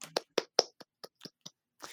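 A short, thin round of applause: about eight sharp hand claps at an uneven pace, with quiet gaps between them and no talking.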